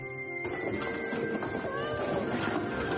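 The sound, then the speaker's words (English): A cat named Fat meows in a long, drawn-out, fairly loud cry that bends up and down in pitch, continuing steadily through the whole stretch with no talking. “I have the most awesome cat in the history of time.”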